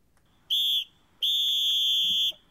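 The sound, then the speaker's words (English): A whistle is blown twice, loud: a short shrill blast followed by a longer, steady one, with no one talking. “I know I just blew a whistle.”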